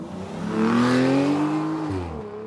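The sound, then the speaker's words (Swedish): A car outside a prison, carrying Frank Abagnale in his escape, roars as its engine accelerates hard, the revving pitch climbing steadily before dropping as it shifts, with a faint tire squeal suggesting a fast peel-out and getaway. “Och det tar ju inte många sekunder innan den där bilen rivstartar och åker iväg.”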